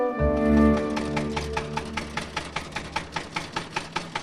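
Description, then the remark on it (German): A tractor engine starts with a low rumbling drone, then settles into a steady, rapid chugging rhythm of evenly spaced putts, moderately loud, with no voices. “Mit dem Trecker.”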